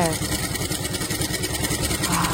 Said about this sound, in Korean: 아유, 계속 재봉틀 소리를 듣는데 이렇게 안정감이 있을 수 있어요? 밥 먹고 일하실 때 너무 졸리시겠는데요?